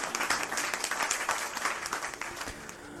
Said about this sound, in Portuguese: Eu sou muito feliz de ter vocês como público e uma salva de palmas para o meu público! Com gritinhos, com gritinhos.